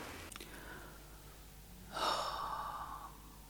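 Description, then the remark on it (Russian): A person imitates panicked, heavy breathing, like someone running on adrenaline and cortisol in fear: a brief sharp breath, then after a pause a long, loud, strained gasp, with no talking. “И я слышу, что все это время на этом видео я дышу как человек, ну, на абсолютном адреналине, кортизоле, я дышу. Вот это, это вот такое дыхание.”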